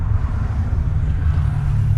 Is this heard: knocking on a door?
no